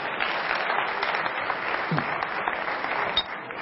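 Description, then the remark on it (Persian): Steady applause from a group applauding themselves, a dense crackle of many hands clapping at an even level with no voices standing out above it. “خب خودتون رو تشویق بفرمایید ممنون”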